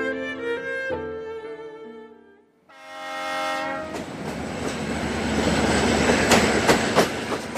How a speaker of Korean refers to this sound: 그가 탄 로마행 밤기차가 서서히 움직이기 시작하고 베네치아와 내륙을 잇는 긴 다리 모양의 철교 위를 달리기 시작했다.